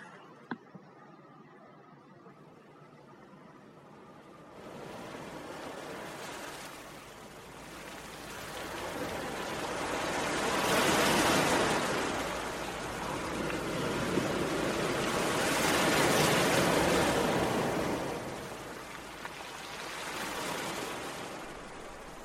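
Ocean waves wash onto the shore in a steady hissing roar, swelling and receding in slow surges every five seconds or so after a quiet opening. No one speaks.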